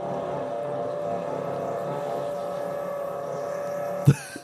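A drill bores into a wall with a steady, muffled motorized whine that holds for about four seconds, then stops with a brief knock.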